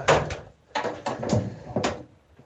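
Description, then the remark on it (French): The front door of house number 6 is opened by someone entering, with a series of clicks, rattles and knocks from the latch and frame, coming in short bursts with brief pauses between them. “Écoutez, j'arrive à la porte, je vais, euh, je vais entrer.”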